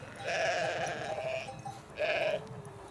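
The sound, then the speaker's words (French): Two sheep bleats from a ewe and her first lamb, a longer wavering call followed by a shorter one, with a quiet farmyard background and no talking. “Là, c'est son premier agneau en fait.”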